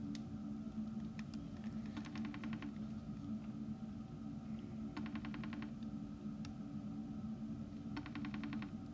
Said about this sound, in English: That's the FaceTime. For all you poor people that don't have iPhones, that's what it sounds like all you Android monsters out there.